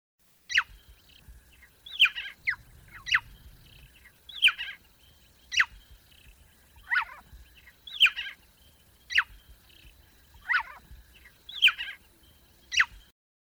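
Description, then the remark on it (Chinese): Swinhoe's frog, also called the bird frog, calling in short, high, bird-like chirps, about a dozen sharp tweets repeated at a steady pace roughly once a second, clear against a quiet low background with no talking. “斯文豪氏赤蛙的叫声啊，是啾啾啾，这个就听起来真的很像鸟叫声，所以呢，它也被称为鸟蛙哦。”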